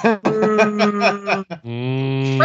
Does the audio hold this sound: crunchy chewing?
no